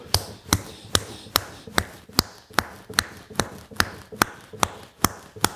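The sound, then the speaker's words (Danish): Someone repeatedly smacks their own forehead: about thirteen sharp, dull thwacks in a steady, even rhythm, each a quick impact with a short tail, with no talking. “Og det kunne jeg jo egentlig godt illustrere ved bare at sidde her og slå mig selv i panden i 7 minutter.”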